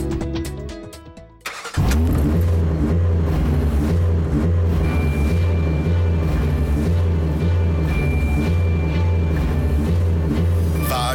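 A car engine running on OMV Max Motion fuel cranks for a moment, then roars to life and keeps running loud, a deep throaty rumble with rhythmic pulsing that holds for several seconds, no voices.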